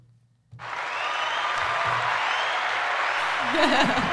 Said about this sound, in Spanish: Aplausos.